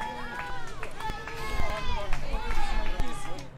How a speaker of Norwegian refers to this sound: Han puster tyngre, og hvert skritt faller hardere og hardere mot bakken. Ja, vi kjenner det i beina.